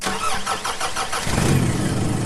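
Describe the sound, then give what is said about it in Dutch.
A car running on standard petrol starts: the starter cranks with a rapid rhythmic whirr for about a second, then the engine catches and settles into a steady, low rumbling idle. “Dit is het geluid van een auto die start op standaard benzine.”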